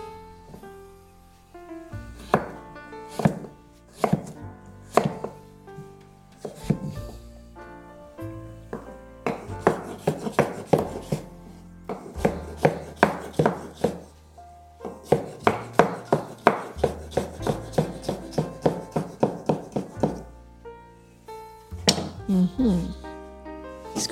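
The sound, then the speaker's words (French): A knife chops little gem lettuce on a board, first into sticks then crosswise into small cubes that are added to a saucepan, crisp taps in quick bursts and steady runs, with a voice speaking at times underneath. “Et ensuite, perpendiculairement, je découpe. Et au fur et à mesure, je viens ajouter mes petits cubes de sucrine dans ma casserole.”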